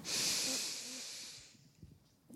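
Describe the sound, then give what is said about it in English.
A single deep, airy breath inhaled during a guided relaxation exercise, steady for about a second and then fading away into quiet. No one speaks. “Taking a deep inhale all together.”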